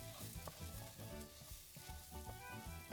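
Steady sizzling of food frying in a pan as a full handful of grain is added and stirred well, with repeated scraping and clattering in quick, uneven strokes. No one speaks.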